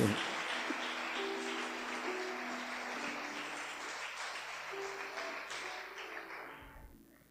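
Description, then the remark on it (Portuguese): An audience applauds the Lord together, a steady dense wash of many hands clapping that holds for several seconds, with faint tonal notes underneath, before gradually tapering off at the end. “Pode aplaudir o Senhor, Ele tem cuidado de você.”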